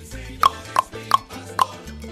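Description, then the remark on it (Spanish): A man knocks on the door of a house: four sharp, evenly spaced knocks, with a low steady hum underneath and no voices. “Un señor va hasta donde vive una supuesta adivina y le toca la puerta.”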